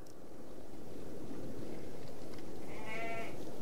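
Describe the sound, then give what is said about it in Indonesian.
A ewe gives a single wavering bleat near the end as two men approach it, one holding it while the other strokes its udder, heard over steady outdoor rumble and wind-like noise. No one speaks. “Lalu, segeralah kedua pria dewasa tersebut menghampiri domba betina itu.”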